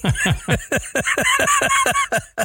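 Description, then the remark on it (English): A duck quacks loudly in a rapid, steady run of about ten harsh calls, with no voices present. “Ducks.”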